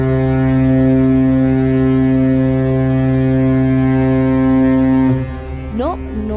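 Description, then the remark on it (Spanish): A deep, loud cargo ship's horn blasts steadily for about five seconds, rich in low harmonics, then cuts off and trails into a brief rising tone. “es un error en el audio ni ningún claxon, ustedes escuchan el sonido de un carguero.”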